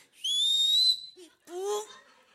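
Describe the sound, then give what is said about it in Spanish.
A loud, piercing human whistle to make a passing bus stop, one long rising note held for most of a second, followed after a short pause by a brief lower voiced call. “y el camión se venía de reversa, aunque no ve lo decía, ¿Quién chifló? No venía nadie detrás de mí, le decía yo, el de atrás.”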